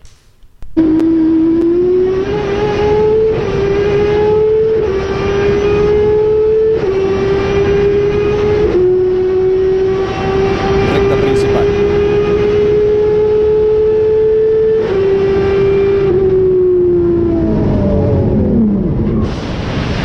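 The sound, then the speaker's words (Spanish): A race car engine roars loud, heard from the onboard camera in Humberto Krujowski's car, holding a steady high whine with brief dips like gear shifts, then winding down near the end. No one speaks. “¿Quieren escuchar la cámara a bordo en el auto de Humberto Krujowski?”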